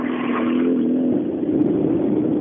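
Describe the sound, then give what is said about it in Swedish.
A rally car speeds past, its loud engine roaring steadily, with a droning note that drops in pitch about halfway through as it goes by. No voices. “Men de har ganska bra fart förbi här.”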